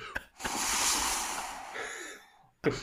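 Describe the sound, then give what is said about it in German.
A voice imitates ocean surf with a long, breathy, wheezy exhale that swells and slowly fades over about two seconds, followed by a short sharp intake of breath, fairly loud. “Sonst bräuchte ich nochmal dein Meeresrauschen.”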